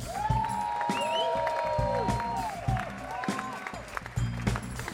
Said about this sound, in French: Donc je vais vous demander d'applaudir très, très, très, très fort. Monsieur …, s'il vous plaît.